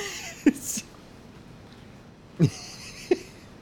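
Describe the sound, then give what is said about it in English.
A cat meows three times. The short, fairly faint calls come close together, with a longer pause after the first one and no talking. “I think it's, never heard that cat meow all the times I've been over here.”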